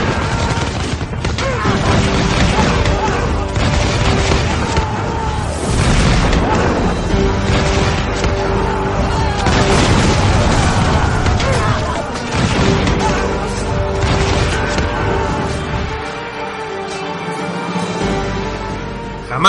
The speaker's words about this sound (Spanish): Por doquier las naves luchaban entre ellas. Los cañones tronaban. Los tiros y las flechas surcaban los cielos.